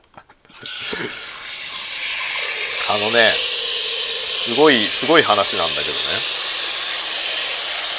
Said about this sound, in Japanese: ちょっと今うるさくてごめんねこれお水をお水を鍋に入れましてこれを今沸かす